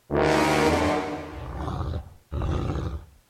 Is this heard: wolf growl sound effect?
yes